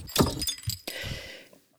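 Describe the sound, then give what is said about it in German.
A glass bottle of Fritz Cola Null Zucker plus Guarana being opened: a few bright glassy clinks and knocks, then a sharp release followed by a short, steady fizzing hiss that fades out. “Na, ich müsste es mir erstmal öffnen.”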